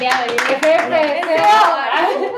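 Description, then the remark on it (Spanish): A brief burst of applause, a handful of quick, sharp claps in the first half second, with people talking loudly over and after it. “Eh, primero en Santiago Oriente, Gran Club, aplausos.”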